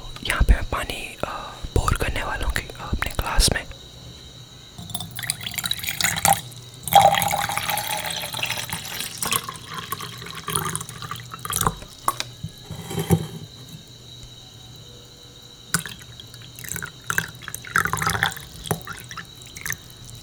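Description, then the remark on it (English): Quiet sips and swallows of water with soft wet clicks and small liquid trickles, interspersed with gentle whispering. “पानी से याद आया लेट्स ड्रिंक सम वाटर”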